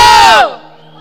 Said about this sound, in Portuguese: Aí eu falei assim, ô oh, mãe, pode gritar, eu sei que você gosta, eu sei que você gosta de gritar. Tremendo!